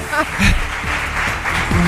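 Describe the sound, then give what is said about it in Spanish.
An audience claps in a dense, steady patter of many hands, with scattered voices and brief laughter mixed into the applause throughout. “A que no sean riojanos también les pueden aplaudir.”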